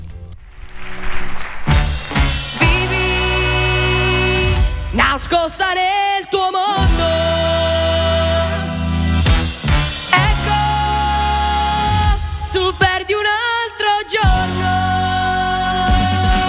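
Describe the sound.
An Italian pop song plays loudly and steadily, a singer's voice carrying the melody over a full, sustained instrumental backing with swelling chords throughout.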